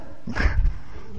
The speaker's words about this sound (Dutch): Ja, dat is een bedenkelijk kuchje. Volg het maar kritisch hoor.